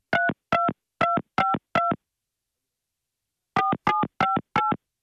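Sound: telephone dialing tones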